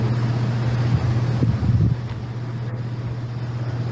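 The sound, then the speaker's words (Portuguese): A helicopter's steady, low mechanical drone with a humming tone and broad rushing noise, briefly swelling in the middle before settling back to a constant rumble. No one speaks. “Tem um helicóptero passando do lado, cara.”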